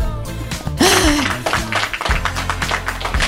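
A canned applause effect played by the operator of a radio show: a crowd claps densely and steadily for about three seconds, with a brief rising cheer or whoop near the start, and no clear speech over it.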